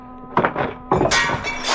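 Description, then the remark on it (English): Window glass shatters in two loud crashing bursts, followed by a bright tinkling spray of falling shards that rings on briefly. No voices are heard. “Uh, the window.”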